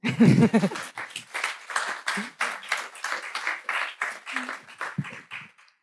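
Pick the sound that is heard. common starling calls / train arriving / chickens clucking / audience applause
audience applause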